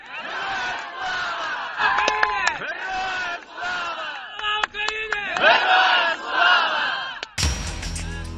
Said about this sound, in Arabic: هذه أصوات المتظاهرين الأوكرانيين الغاضبين من خطاب الرئيس الروسي فلاديمير بوتين ويرددون المجد لأوكرانيا المجد للأبطال